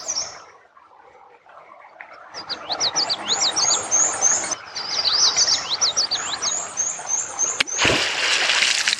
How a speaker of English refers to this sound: Speaking of, did you hear that? There's a beaver watching us right now. That tail smack lets other beavers in the area know that we're here and potentially dangerous.